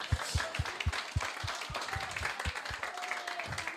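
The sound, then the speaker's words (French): A crowd claps steadily in dense, continuous applause, moderately loud, with individual claps standing out rhythmically against the broad wash of hands; the audience is applauding itself. “Applaudissez-vous parce que quand même.”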